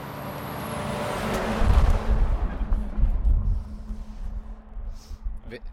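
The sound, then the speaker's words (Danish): Heavy trucks rumble past outside, a deep, steady roar that swells and lingers with a brief hiss near the start, while muffled voices sit faintly underneath. “Vender man sig til, nogensinde til de der lastbiler?”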